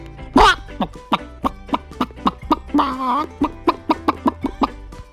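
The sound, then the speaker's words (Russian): Chickens cluck in a steady run of short, clipped notes, with a couple of louder drawn-out squawks rising above the flock, as a rooster struts among the hens; no one is talking. “А петух сошел с навозной кучи и гордо прохаживался перед курами.”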